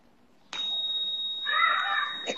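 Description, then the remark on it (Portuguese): A bell rings out abruptly and keeps sounding steadily for about two seconds, a bright sustained ring with a buzzy, rattling edge that grows louder toward the end. “Tocou o sino.”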